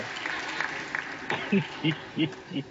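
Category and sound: crowd, audience clapping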